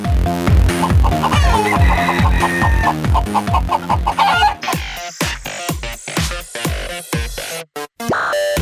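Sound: rooster clucking and crowing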